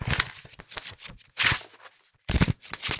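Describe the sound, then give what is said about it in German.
Pages of a thick video-game strategy guidebook are flipped, producing several papery rustling bursts with short pauses between them, a louder flurry near the end, and no voices. “Du kannst ja mal mal drin blättern. Die Leute können es zwar nicht ja, sehen, aber dann können sie es hören, das Buch.”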